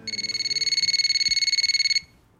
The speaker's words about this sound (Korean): 그러던 어느 가을 주말 오후 집에 혼자 있는데 전화벨이 요란하게 울리더군요.